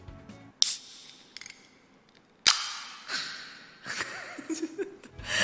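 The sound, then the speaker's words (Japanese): A can of Japanese premium Chiba-prefecture pear chuhai is cracked open before a toast: a small click, then a sharp pop and a hissing fizz that fades, with soft breathy laughter in the background. “ちょっと選んでみましたということで開けちゃいますいきます”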